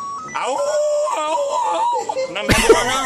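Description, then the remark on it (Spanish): A person's voice imitates a wolf howl, a loud, sustained wavering wail lasting a couple of seconds before breaking off into a rough, noisy vocal burst at the end. “Mira el grito este de lobo, por favor.”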